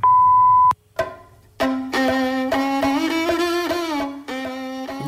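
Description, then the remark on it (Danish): An answering machine beep: one steady, loud mid-pitched tone lasting under a second, cut off by a click. A sustained, buzzy sound rich in overtones follows. “Hello, please leave a message after the tone.”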